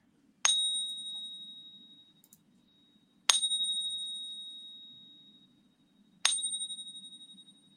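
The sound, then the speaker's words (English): A genuine American Silver Eagle silver coin is tapped three times for a test, each tap giving a bright, high metallic ring that sustains and slowly fades over about two seconds, with steady pauses between strikes and a faint low hum beneath. “the lines went up after you yeah. after you tap the coin there”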